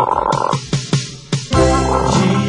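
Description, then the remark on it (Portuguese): A small pet frog croaks in a quick run of short, clicky croaks, then one longer, drawn-out rasping croak, fairly loud with no talking. “Amigo meu pequenino sapo de estimação que está comigo fazendo esse programa.”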